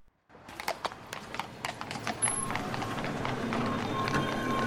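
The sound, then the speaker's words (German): Hooves of horse-drawn carriages clip-clop steadily on a hard street in London, a quick run of sharp clicks over a busy murmur of traffic, including cars, and crowd noise that swells and stays dense. “Menschen, Pferdekutschen und sogar Autos bevölkern schon die Straßen.”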